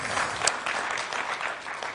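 A crowd claps steadily, a dense patter of many hands in a room, moderately loud and continuous throughout with no voices.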